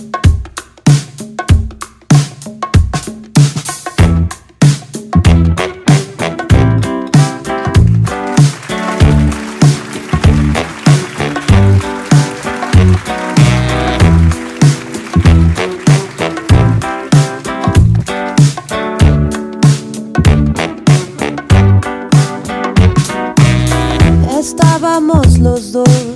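An acoustic duet plays steadily and fairly loud, with rhythmic strummed chords and sustained melodic lines running throughout; the voices and instruments blend into a full, continuous performance.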